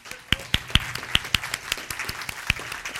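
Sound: round of applause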